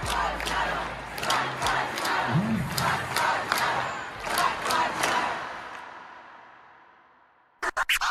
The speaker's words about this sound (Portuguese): E aos 12% da população americana negra, resta gritar nas ruas Black Lives Matter, é, vidas negras importam, né? parem de nos matar.